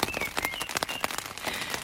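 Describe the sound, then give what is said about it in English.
Steady rain patters on a taut tent roof at a grassy spot among hills, a dense crackle of drops with sharper taps scattered through it, and a few faint bird chirps in the background. No voices. “I get the alley coop up just in time before the rain smacks the top, a perfect lullaby for a much needed nap.”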